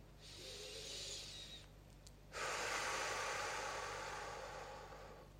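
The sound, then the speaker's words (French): A woman takes a slow, deep, relaxing breath while focusing on her breathing: a long airy inhale, a short pause, then a louder, fuller exhale that gradually fades, with no talking. “des bonnes respirations relaxantes, de laisser le flux de mes pensées, de mes émotions, de tout ce que j'ai à faire passer, connecter à mes sensations, à mon corps, à la chaleur, euh, la fraîcheur de ma respiration”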